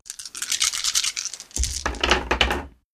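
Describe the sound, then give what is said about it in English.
A handful of seven dice rattles briskly for about a second and a half, then spills out with a dull thud and a burst of clattering, rolling to a stop, rolled for damage in a game. No one speaks. “She will be rolling seven dice of damage.”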